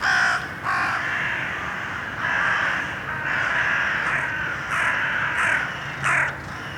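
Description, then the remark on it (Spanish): Crows cawing loudly and repeatedly in a city, several harsh calls overlapping in an irregular chorus, continuous over a faint outdoor background, with no one speaking. “¿Es normal que haya cuervos en una ciudad?”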